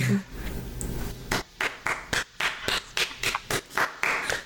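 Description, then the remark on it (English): A small group claps after a quiet start, the sharp hand claps coming loud and slightly uneven for a few seconds, with no talking over them. “Just round of applause, everybody.”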